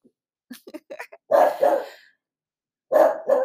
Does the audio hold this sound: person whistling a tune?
no